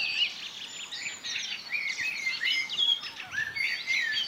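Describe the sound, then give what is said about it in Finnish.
A common blackbird starts singing at 4:09 in a forest, recorded by a microphone placed under a large spruce, its fluty, warbling phrases rising and falling over a steady, busy chorus of higher chirps and twitters from other birds, with no voices present. “Mustarastas alkoi laulaa komeasti sitten siinä metsässä.”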